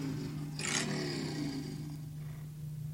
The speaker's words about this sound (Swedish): Vad var det som lät? Du, det var min eh, ringsignal.